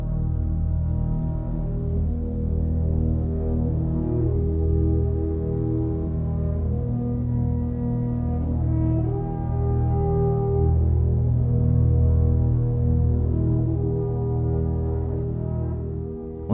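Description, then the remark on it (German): A deep, sustained orchestral drone from double basses, their E strings tuned down a half step, and gradually entering bassoons on a low B-flat, forming a pure fifth. It is very soft, barely above audibility, and steady throughout, with a faint shimmer of overtones above it and no voices. “Kontrabässe deren E-Seite sogar um einen halben Ton herabgestimmt wurde, dann die allmählich hinzutretenden Fagotte mit dem tiefen B und das alles sehr leise, knapp über der Hörbarkeitsschwelle, eingekleidet in ein schillerndes Gewand aus Obertönen.”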